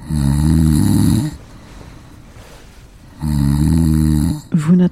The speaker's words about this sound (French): mon mec, il s'est mis à ronfler il y a pas longtemps, là. Je sais pas, un mélange pollen, reprise de la saison du rosé, je sais pas trop quoi. du coup, c'est une catastrophe. C'est une catastrophe.